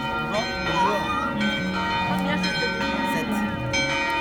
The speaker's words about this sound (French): sous les cloches de Rayanne, bonjour.